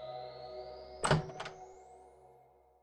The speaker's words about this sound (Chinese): 就在这时，响起了敲门声。我打开了门。